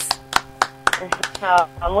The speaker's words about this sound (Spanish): con un aplauso? Así es.